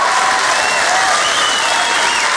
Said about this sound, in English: oh, that's very nice. First round of applause, and it's on a bollock gag.